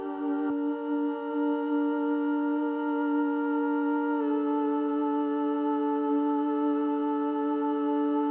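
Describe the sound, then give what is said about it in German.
Sustained, steady vocal tones hold one chord with no break, slowly gliding across the stereo field from left to right, smooth and even throughout, moved by a sine-shaped modulation alongside other static vocals. “dass die Stimmen ganz leicht von links nach rechts wandern und das dann im Zusammenhang mit den anderen statischen Vocals sorgt halt für ein Aufbrechen dieses Stimmklotzes, sage ich mal, und sorgt so ein bisschen für so einen Mirage-Effekt.”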